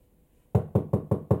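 Five quick, evenly spaced knocks on a door ring out close and firm after a moment of near-silence, each a solid wooden thud with no voices present.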